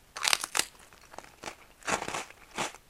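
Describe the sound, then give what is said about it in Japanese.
Crisp, crackly crunches of someone biting and chewing a Nissin Cisco coconut sablé biscuit, fermented butter flavour, eaten as an after-meal snack; about five bursts at an irregular, unhurried pace, moderately loud with no talking. “それで今食後のおやつココナッツサブレを食べてます”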